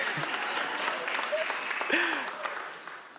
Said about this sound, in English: I am not. Why are you clapping?